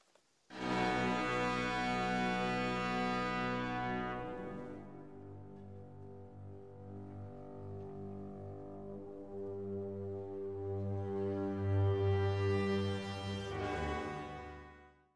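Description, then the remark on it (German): The Chicago Symphony Orchestra plays The Catacombs from Pictures at an Exhibition, a slow, solemn classical passage: loud sustained brass chords swell, fade to a hushed low drone, then rise again to a powerful climax before ending. No voices. “Und bis die ersten Höreranrufe reinkommen, hören wir nochmal äh, die Bilder einer Ausstellung gespielt von Chicago Symphony Orchestra.”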